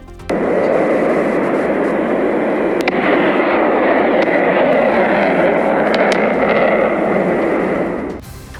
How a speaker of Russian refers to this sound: такие звуки слышали жители Севастополя ночью. В местных телеграм-каналах люди делились видео, на которых слышны взрывы и видно дым и зарево.